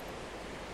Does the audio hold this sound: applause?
no